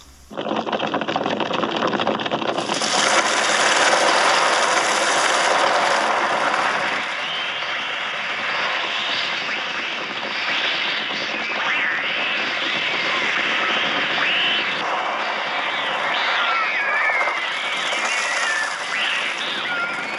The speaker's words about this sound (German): 1963 wurden für den Hitchcock-Film Die Vögel elektronische Vogelstimmen erzeugt.